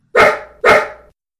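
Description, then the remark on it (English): A pit bull barks twice in quick succession, loud, each bark hitting sharply and then trailing off, with no other sounds around it. “So, if you see a pit bull with a diamante collar and red nail polish, leave him alone.”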